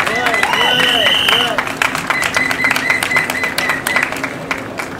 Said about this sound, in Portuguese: Portanto, uma salva de palmas por todos aqueles que libertaram, que lutaram pela liberdade em Portugal.